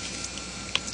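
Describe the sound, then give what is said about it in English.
A quiet sip of water: a faint wet slurp and a small swallow click near the end, with no talking over it. “A little water, excuse me.”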